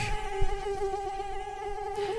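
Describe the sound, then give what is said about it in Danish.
A steady, high-pitched whine of mosquitoes buzzing, continuous for the whole moment with slight wavering in pitch and no voices. “myg.”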